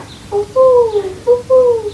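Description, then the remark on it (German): A child's voice imitates an owl using only the mouth, hooting twice in quick succession: each call is a short note followed by a longer, drawn-out, gently falling hoot, clear; a school class is recording forest sounds. “Mach nochmal deine Olle.”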